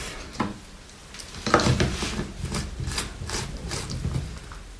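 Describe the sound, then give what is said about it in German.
A lid is fitted onto a blender jar after water is added, before the blender is switched on: a few clattering plastic knocks and scrapes, with one louder clunk near the start, over a quiet background. “So. Deckel drauf.”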